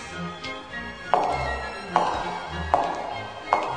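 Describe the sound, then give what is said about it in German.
A shoe strikes asphalt in four sharp, evenly spaced knocks, fairly loud, each a crisp thud with a short ringing tail, over a quiet background with no talking. “Da hämmerte in wildem Staccato ein Schuh du wilder, wilder Schuh, dachte sich, der Asphalt.”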